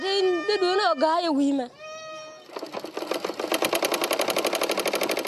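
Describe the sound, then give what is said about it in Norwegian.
A tailor's sewing machine, used for simple repairs to refugees' clothes in a UN refugee camp, runs with a fast, even mechanical clatter that continues steadily to the end, following a couple of seconds of voices at the start. “Det er en kaotisk situasjon i flyktningeleiren, men en skredder klarte å få med seg symaskinen sin og utføre enkle reparasjoner på flyktningenes klær.”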